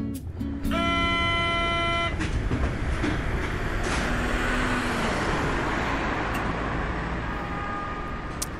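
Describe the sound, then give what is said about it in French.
A metro train rumbles loudly along the track, a steady low roar with a bright two-tone horn or whistle near the start, then a sustained hum and faint squeals as it rides on. “Tu as enfilé tes bottes en caoutchouc, ta combi de paysagiste et tu as pris le métro pour partir en reportage, la fleur au fusil et l'arrosoir à la main.”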